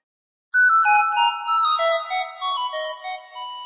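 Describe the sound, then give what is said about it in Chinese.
The classic Nokia mobile phone ringtone plays alone, a quick run of bright, chiming electronic notes stepping up and down in a lively melody, loud and clear for about three seconds. “不知道你们记不记得以前的诺基亚手机，它的那个铃声啊，就是 噔噔噔噔噔噔噔噔噔噔噔噔，请后期小姐姐给我加一个原声吧，我好像变调了。”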